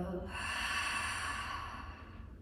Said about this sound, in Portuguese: E última vez, puxa o ar inspirando. Expira.